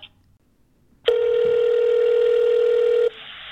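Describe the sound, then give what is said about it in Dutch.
A single steady telephone tone holds one pitch for about two seconds after a brief quiet moment while a phone call is being transferred, then cuts off abruptly, leaving a faint hiss. Nobody speaks. “Ik zal even kijken of ik kan doorverbinden.”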